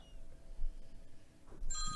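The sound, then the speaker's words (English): A phone's electronic ringtone, an incoming call from an appliance company, suddenly starts near the end, bright and loud, cutting in over a low rumble and faint background noise. “This this appliance company has been calling me.”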